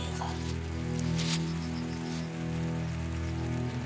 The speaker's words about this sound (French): Lorsque le ciel semble avoir retrouvé quelques bonnes couleurs, il sort une petite pluie fine continue d'arroser la terre.